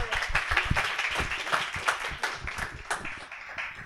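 A crowd applauds steadily, many hands clapping in a dense, continuous patter of sharp claps at a fairly loud, even level.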